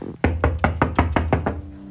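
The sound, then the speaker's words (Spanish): Seven firm knocks on a wooden door of a house in a quick, steady rhythm, fairly loud, as a man knocks to ask for a place to stay for Shabbat, followed by a brief pause with faint room tone. “tocaba la puerta.”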